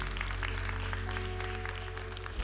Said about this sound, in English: Come on, everybody in this room, say amen and amen. And let's clap our hands and thank God for that all over this room.